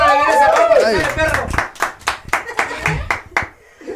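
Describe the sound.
Voices ring out briefly, then a small group claps in steady, distinct claps roughly four per second, fairly close and moderately loud, tapering off at the end.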